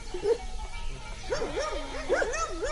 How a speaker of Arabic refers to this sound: يا دوب سمعت الكلاب بتنبح ماتت من الخوف